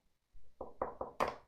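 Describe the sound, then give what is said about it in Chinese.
A low dull thump, then four quick, evenly spaced knocks on the iron door of a concrete house, growing louder, with the final rap the sharpest and brightest. No voices. “老龟敲门不久，屋里便出来了一名看起来四十岁左右的短发女人。”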